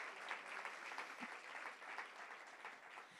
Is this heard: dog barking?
no